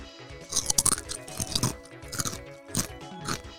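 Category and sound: food or drink, crunching potato chips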